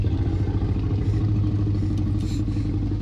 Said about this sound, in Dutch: En het grommende geluid van de Rex is niet afkomstig van een poedel, maar het is het vertraagde geluid van Buster, de Jack Russell Terrier van Gary.